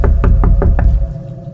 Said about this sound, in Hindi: करीबन दस मिनट बाद विजय ने गाड़ी शुरू करी गाड़ी शुरू हुई और साथ ही शीशे पर एक दस्तक